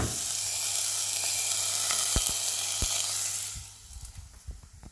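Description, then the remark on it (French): Oil sizzles steadily in a large pan with shallots being cooked for a risotto, a bright, crackling hiss and a few sharp pops, then the sizzle fades abruptly near the end, leaving quieter scattered clicks and stirring sounds. “je vais vous faire ce petit bruit de l'huile.”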